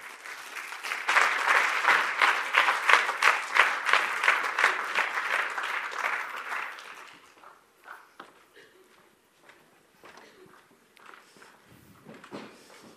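An audience welcomes an interview guest, clapping loudly for about seven seconds. A dense patter of many hands then fades to a few scattered claps and light shuffling sounds.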